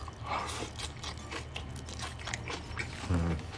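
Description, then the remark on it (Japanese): Wet chewing and biting with soft crunchy bursts repeating irregularly, a mouthful of wakame salad, with plenty of wakame and some beans, being eaten with no talking. “これなんか動物みたいまさにペットのもぐもぐタイムねうんどんだけ音拾ってんのかわかんないけどねうんわかめたっぷり”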